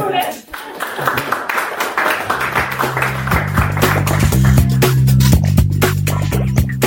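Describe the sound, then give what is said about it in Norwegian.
An audience breaks into applause, a dense, irregular patter of many hands that swells and holds steady, with a low sustained musical tone joining partway through beneath the clapping. “Så, Skal vi ta en applaus?”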